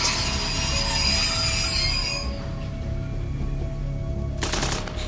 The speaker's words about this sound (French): Le train roule une quinzaine de kilomètres. Puis, s'arrête.